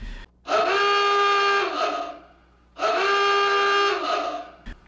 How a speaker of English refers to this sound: So that that little alert alarm that you just heard is telling you that we are about to talk about the ending in some detail.